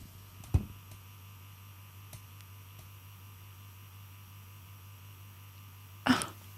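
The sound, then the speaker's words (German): A vibrating device buzzes in a steady, low drone that never lets up, fairly quiet, while a seated person feels their whole lower body vibrate. Two brief bumps break in, one near the start and one near the end. “mein ganzer Unterleib vibriert.”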